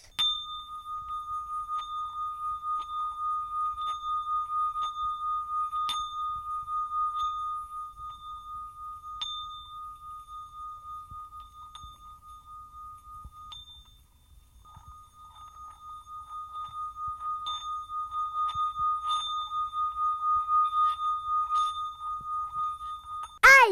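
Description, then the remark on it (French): A copper singing bowl rubbed with a wooden mallet gives a steady, ringing tone with high shimmering overtones, swelling and dipping slightly over about twenty seconds, with a faint low rumble underneath. “Eh bien, tu le fais tourner contre le bord extérieur du bol, et au bout d'un moment, le bol se met à chanter.”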